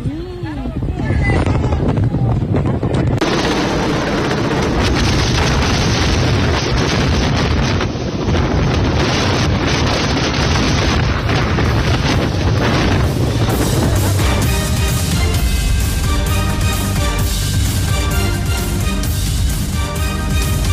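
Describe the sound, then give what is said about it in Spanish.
Repeated loud gunshots crack amid heavy wind buffeting on the microphone, with voices shouting insults at soldiers in the background throughout the chaotic, noisy scene in Michoacán, Mexico. “Todo esto que usted escucha los insultos a los militares, los disparos, todo esto en Michoacán.”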